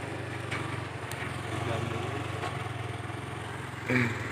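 A motorcycle engine drones steadily at moderate loudness, a low buzzing hum that holds through the whole stretch, with a brief faint voice near the end.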